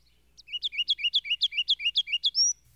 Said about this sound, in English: A day or two afterward, in the same tree, I heard for the first time the song of the ruby crowned wren, or kinglet.